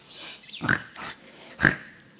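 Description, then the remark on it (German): A pig named Max grunts three times in quick succession, short snorting bursts a moment apart, fairly loud over a quiet background. “Plötzlich grunzt Max lautlos.”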